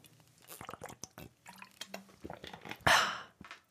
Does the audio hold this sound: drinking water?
yes